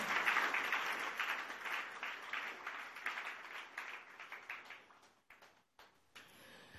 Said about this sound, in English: Shout a louder amen. Okay. Clap your hands and bless the Lord.